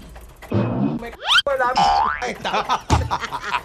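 A voice imitates an old car engine that speeds up on its own, then loses speed and nearly stalls while being driven, with loud bursts of rough rumbling and springy rising and falling tones that choke off abruptly before sputtering again.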